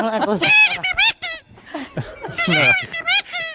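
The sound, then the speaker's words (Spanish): A loud seagull imitation blown through a small homemade mouthpiece of bamboo and a balloon, for a little Hawaiian seaside ambience: a rapid run of squeaky, wavering squawks and cries with short gaps, no talking over it. “una pequeña boquilla que hemos hecho con un bambú y un globo para, para hacer las gaviotas”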